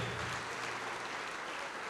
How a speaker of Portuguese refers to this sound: Oh glória, vamos aplaudir mais ao nome de Jesus. Vamos aplaudir muito.